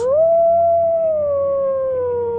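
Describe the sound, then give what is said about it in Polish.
A long, drawn-out wolf howl rises briefly, then holds a steady mournful pitch before slowly sliding lower, loud, over a faint low rumble in the background. “Co? Co? Wilki?”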